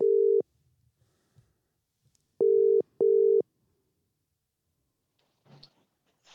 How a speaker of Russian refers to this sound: Сразу со второго гудка Англия ответила.